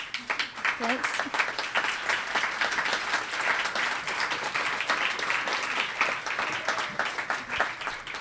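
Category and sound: crowd, audience clapping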